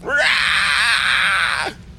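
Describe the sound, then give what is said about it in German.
A voice imitates the screech of an oversized crawling creature slapped on one of its hind limbs: one loud, sustained, harsh shriek lasting about a second and a half, rising in at the start and dropping off sharply at the end. “Es kreischt”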